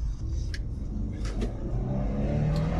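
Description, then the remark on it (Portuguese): A Jeep engine drones steadily, then its pitch climbs as it revs through a Tiptronic automatic gear change, with a deep rumble running underneath and no voices. “troca, a troca do carro não é tão rápida, né? a redução é mais rápida do que a troca. Você subir a marcha.”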